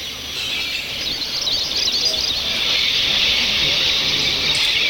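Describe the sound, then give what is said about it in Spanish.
A dense, continuous wash of high chirping and fluttering from a flock of thousands of swallows emerging in a spiral from the Sótano de las Golondrinas in the Huasteca Potosina, San Luis Potosí, steady and loud throughout, with no voices. “Del sótano de las golondrinas emerge el aleteo de miles de aves en majestuosa espiral.”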